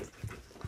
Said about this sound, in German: Ah, das war mein Stuhl hier übrigens, ne? das war ich nicht.